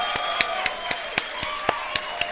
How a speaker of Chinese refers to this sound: 让我们掌声欢迎伟大的救世主们啊！